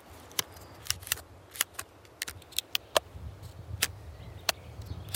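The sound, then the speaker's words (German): A hand brushes over the black-grey bark of a black pine tree, making a string of sharp, dry crackles and scratchy clicks at an irregular pace over a soft low rumble, with no one talking. “Die Schwarzkiefer hat so schwarz-gräuliche Rinde und wenn ich darüber streife, dann entsteht ein wunderschöner Klang.”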